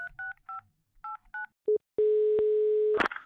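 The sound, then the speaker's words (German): A quick string of six touch-tone dialing beeps in uneven bursts as a phone call is placed, then a short ring tone and a steady tone that cuts off with a click, clear with no voices. “Und wenn du magst, rufen wir den einfach an.”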